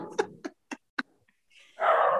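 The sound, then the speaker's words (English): Two dogs bark in a quick run of four sharp barks, then break into a louder, sustained bark or yelp near the end. “Both of our dogs are uh, barking.”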